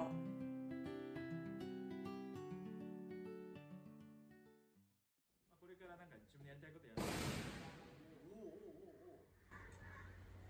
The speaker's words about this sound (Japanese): すごい音。This is Nepal. なんか爆発したかもしれない。